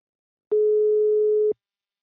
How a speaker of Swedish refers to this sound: Nu tar vi en kort paus och ringer upp min samarbetspartner Invacare.